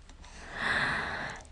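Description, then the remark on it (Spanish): A single deep, airy breath in and out swells up and then fades, fairly soft, with no talking around it. “Una vez más, inhala. Exhala.”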